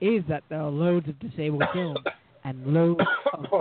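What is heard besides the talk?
coughing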